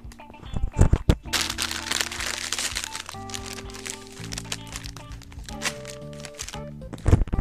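A few sharp snaps and pops, then a long stretch of loud, crackling plastic crinkling as a bag of veggie straws is pulled open by someone lying in bed, with steady tones running underneath.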